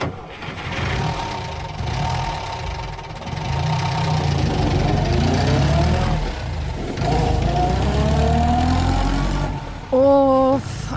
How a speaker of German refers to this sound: Und wir hören uns mal von dieser hifi Kulissen platte von 1973 Anlassen von Automotor und Abfahren an.